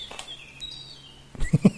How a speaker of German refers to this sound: Aber ich glaube nicht, warte mal war mein Wäsche, das war mein Wäschetrockner.